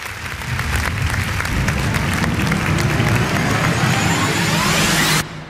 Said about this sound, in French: Mais juste avant, bah, ça mérite quand même des petits applaudissements, tout ça.